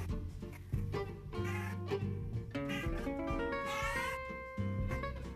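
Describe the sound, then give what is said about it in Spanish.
A cat meows repeatedly in drawn-out, wavering cries, fairly loud, one call running into the next with no one speaking. “Discúlpame, no hablo gato. ¿Qué? ¿cuál es la bronca?”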